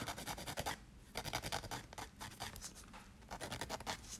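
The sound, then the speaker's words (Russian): Nail filing during a manicure done at midnight: soft, raspy scraping strokes come in quick back-and-forth bursts with short pauses between them, a dry hiss repeating steadily. No one speaks. “Только я могу делать маникюр в 12 ночи, при этом записывать подкаст и пытаться рассуждать о великом.”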